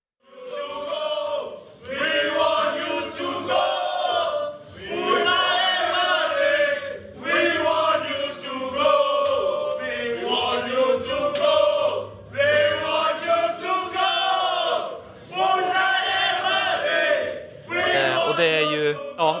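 Indonesian Arsenal football fans chant together in a loud crowd, many voices in unison belting out a repeated protest chant in rhythmic phrases separated by brief pauses.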